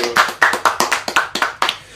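Hand clapping, about ten sharp, crisp claps in a quick, fairly steady rhythm over two seconds, each with a short decay, with no voices.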